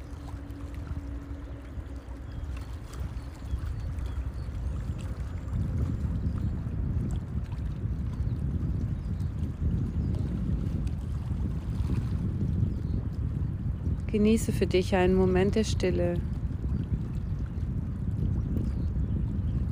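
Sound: water splashing and lapping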